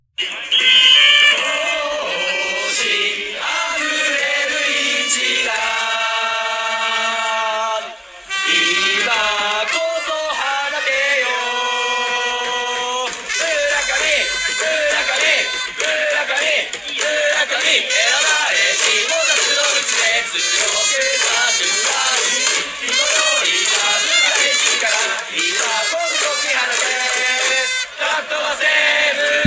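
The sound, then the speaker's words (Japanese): A baseball stadium crowd chants the cheer song of player Murakami in unison, loud and sustained, with rhythmic melodic phrases backed by brass and drums, pausing briefly before the chant resumes at full volume. “まあ、僕も大好きの同世代村上選手の応援歌聞いていただきやしょう。”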